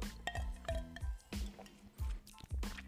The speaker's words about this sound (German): Das ist das Klirren des Eiswürfels. Auch spannend.